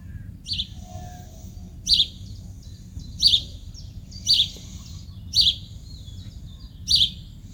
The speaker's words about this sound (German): Da kommt der Vogel zu Besuch.